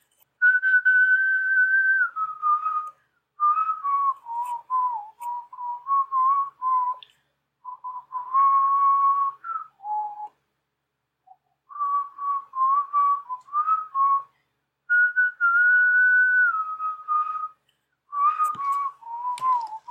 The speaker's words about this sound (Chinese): 讲到这里，那我要讲什么？我要唱什么？我要吹什么口哨呢？